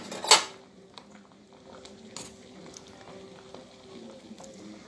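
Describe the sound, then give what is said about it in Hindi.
A sharp metallic clank of a cooking pot of boiled oats rings out near the start as the gas stove is turned off, followed by softer clinks and light kitchen clatter against a low background hum. “अब मैंने गैस को बंद कर दिया है अब मैं इसे सर्विंग बॉल पे सर्व करूँगी”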